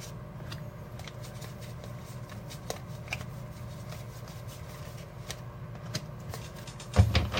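Playing cards being shuffled, a steady run of soft riffling ticks and flutters over a low background hum, ending with a slightly louder clatter near the end. No one speaks.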